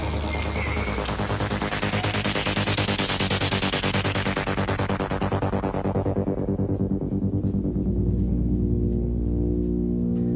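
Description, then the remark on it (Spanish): Pulsing synthesizer tones from a record, a steady rapid rhythm whose bright filtered sweep rises over the first few seconds and then closes back down into a darker, buzzy drone. “Los sintes.”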